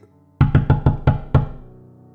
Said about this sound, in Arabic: صوت الدقات رجع أعلى من الأول الباب اتهز وبعدين الصوت سكت بعد لحظات طويلة